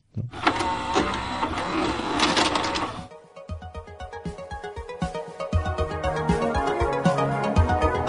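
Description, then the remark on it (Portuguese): A cassette tape mechanism loads with a loud whirring and clattering for about three seconds, then gives way to music that plays on to the end. “E agora entra o som da cassete.”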